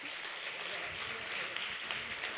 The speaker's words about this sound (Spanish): Por favor, pasa al frente de este escenario. Un aplauso también.